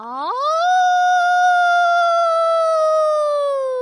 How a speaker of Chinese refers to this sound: 小朋友们，狼嚎是狼与狼之间联络的重要方式。晚上离群的狼会用嚎叫呼唤同伴。狼群也会通过嚎叫驱赶其他狼群，保卫自己的领地。